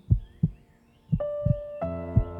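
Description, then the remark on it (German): A deep, muffled heartbeat thumps in slow paired beats, lub-dub, lub-dub, while soft sustained musical tones swell in partway through and ring on beneath the pulse. “Hier, indem du mir lauscht, dein Kopf immer ruhiger wird, du deinen Herzschlag hören kannst und nichts weiter tun brauchst, als diesen Moment wahrzunehmen.”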